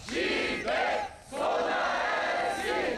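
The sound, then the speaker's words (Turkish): A large crowd of healthcare workers who gathered at Istanbul Faculty of Medicine in Çapa, Istanbul, Turkey, chants in unison during a protest march. Loud, rhythmic shouted phrases come with a brief dip between bursts, the voices blending into a dense, sustained roar. “Çapa'da İstanbul Tıp Fakültesi'nde toplanan sağlık çalışanları protesto yürüyüşü düzenliyor.”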